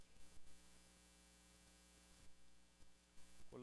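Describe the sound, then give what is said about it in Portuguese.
An electric fan runs steadily throughout, a continuous low motor hum with a broad airy whir, broken only by a few brief bumps and a short tonal blip at the very end. “Colabora comigo, ventilador.”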